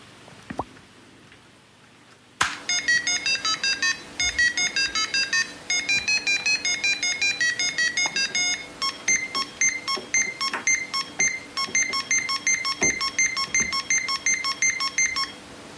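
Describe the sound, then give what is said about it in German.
An LC80 computer starts up with a rapid, continuous stream of electronic beeps, high-pitched tones chattering in quick irregular bursts for over ten seconds after a short quiet lead-in. “Wir haben hier einen kurzen Einspieler, wie sich das anhört, wenn man so ein, so ein LC80 äh, anschaltet. Dann spielen wir den nochmal mal ein.”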